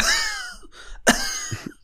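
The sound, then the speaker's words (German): A person imitates a dog coughing: a raspy voiced rasp, then a sharp hacking burst followed by two shorter, quieter hacks. No one speaks. “Oder ähm, hast du schon mal einen Hund husten hören?”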